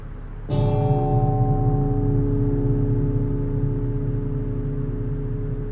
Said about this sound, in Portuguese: O soar do gongo anuncia nossa chegada ao monastério.